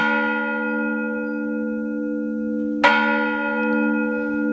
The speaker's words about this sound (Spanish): Yo vivía de pequeña en una plaza en Córdoba frente a una iglesia y el sonido de las campanas era parte de mi día a día, algo de lo que solo me di cuenta cuando dejé de vivir allí. Sobre todo recuerdo el toque de campanas en las tardes de verano